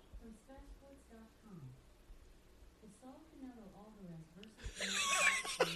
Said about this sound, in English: Alexa going off. I'm not sure what's happening. Alexa, please stop. Did you hear her talking about Canelo right there? Oh my god. This is why I don't have one of those in my home, dude. That's just creepy. They're always listening.